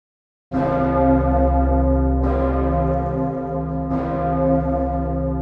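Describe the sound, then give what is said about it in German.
The Pummerin, the massive, deep bell of Vienna, tolls three times at slow, even intervals, each loud strike blooming into a long, humming resonance that never fully fades before the next. No voices are heard. “Das ist die Stimme der dicken Pummerin aus Wien.”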